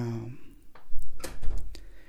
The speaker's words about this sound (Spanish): De hecho, ahorita voy a abrir la puerta. Ya la había abierto hace rato, ahorita la cerré.